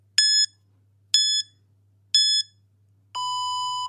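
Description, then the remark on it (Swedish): A workout interval timer app, set to 10 rounds of 30 and 10 seconds, beeps three short, evenly spaced electronic tones about a second apart, then sounds one longer, lower sustained beep, clear with a faint hum underneath. “Och nu räknar du ner från 30 sekunder och sen när du är nere på 30 så piper det igen och sen fortsätter du så.”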